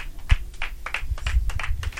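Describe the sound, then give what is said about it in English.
A crowd breaks into applause unto Jesus as the choir is welcomed for praise and worship, a steady stream of sharp claps blending together at a moderate level, with no voices heard over it. “A round of applause unto Jesus. We can do better than that unto Jesus.”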